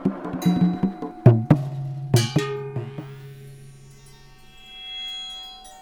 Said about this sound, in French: L'étranger, un sourire macabre plaqué sur son visage, coince l'instrument entre ses jambes et se met à jouer. Il alterne caresses et coups sur sa bomba.